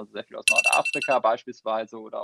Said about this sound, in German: Ähm, red, red bitte weiter, das war der Wecker.